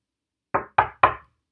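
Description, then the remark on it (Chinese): Three firm knocks on a door in an even, quick rhythm, each a dull thud with a short ring, with silence before and no voices; in a story, the big bad wolf knocks again on the little goats' door. “于是过了一会儿，大野狼又回来敲门。”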